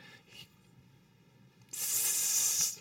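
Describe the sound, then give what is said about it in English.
A person imitates a snake's hiss: one loud, sustained, airy hiss lasting about a second, rising sharply out of silence and then cutting off. “like a snake, you know, comes up.”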